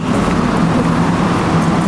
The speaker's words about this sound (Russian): В соседнем помещении, где расположено производство, шумно, работает пресс. Легким движением двух пар рук бесформенная пластическая масса превращается в готовые изделия.